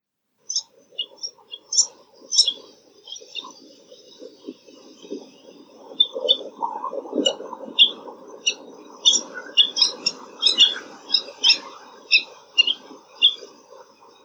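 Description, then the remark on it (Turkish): Repeated high, sharp calls of New Zealand fairy terns ring out in quick bursts, clustering more densely toward the end, over a low rustling background of wind or surf. “Tekrarlamalı yüksek ötüşleri var.”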